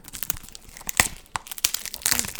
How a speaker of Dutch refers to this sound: Ik eh, zal hem eventjes de seal doorbreken.